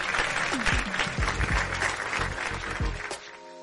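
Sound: applause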